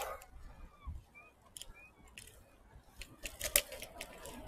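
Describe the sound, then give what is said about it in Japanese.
Several short, nasal seagull calls ring out over a low outdoor hum around Susukino in Sapporo, with seagulls flying, scattered across the first half with a few sharper knocks and rustles near the end. “すすきのあたりにいるんですけど、カモメが飛んでますね。”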